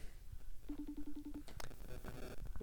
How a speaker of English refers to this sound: just try to get, get you Alexander Goodyear, calling him up right now.